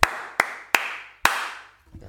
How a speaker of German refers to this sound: Das war ein, ein, extrem guter Applaus, weil wir es gemeinsam geschafft haben, ebenfalls die 50. Folge zu schaffen und ebenfalls die 50. Podcast-Folge gemeinsam auf die Beine zu stellen.